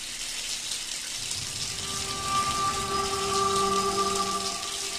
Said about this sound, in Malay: Paip hujan mencura-cura air keluar.